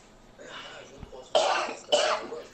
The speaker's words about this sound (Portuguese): Tem alguém tossindo lá.